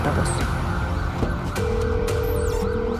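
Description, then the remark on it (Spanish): An ambulance siren wails as the ambulance arrives, over dense, noisy background rumble, its steady tone swelling partway through while a higher sweeping whine rises and falls near the end. “En ese momento llegó a la ambulancia.”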